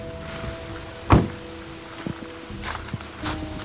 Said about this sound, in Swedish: Och stegen här, de tillhör en kollega till mig